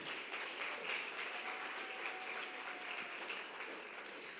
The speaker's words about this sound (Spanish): Así es que por favor un aplauso enorme, enorme, enorme, enorme, enorme.